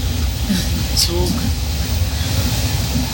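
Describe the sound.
Steady, loud low rumble fills the inside of a moving sleeper train about twelve hours into a journey of roughly 14 to 15 hours, a constant mechanical drone with faint hiss above it and muffled voices blending into the background.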